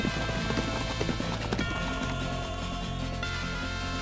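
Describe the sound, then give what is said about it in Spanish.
Horse hooves clip-clop in a steady, unhurried rhythm, fairly loud, as a man rides his horse away from a house, with a sustained musical bed humming underneath throughout. “Él las aceptó muy contento entonces, muy feliz, preparó su caballo, dobló algunos panfletos del segundo advenimiento y se puso una campera hasta el cuello y salió de la casa de su padre a caballo.”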